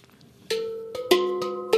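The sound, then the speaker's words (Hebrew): Five notes struck on a pantam, a Swiss handpan-style steel drum, each a bright metallic hit that rings on with sustained, bell-like pitched tones, played unevenly over a quiet background with no talking. “פנטם. זה כלי בכלל וואלה, שוויצרי.”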